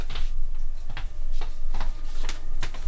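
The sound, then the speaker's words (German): A washing machine clatters through its spin cycle, with a steady low rumble and sharp knocks repeating at a fairly regular pace, moderately loud, with no voices. “das hat ganz schön geklappert beim, beim, beim Schleudern”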